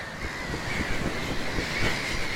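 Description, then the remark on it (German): A bird screeches excitedly, its harsh, shrill cries running almost without pause over a steady rumbling background noise. No one speaks. “Lange mussten die zwei Wale nicht warten, denn schon nach kurzer Zeit kam Sando aufgeregt und kreischend zurück.”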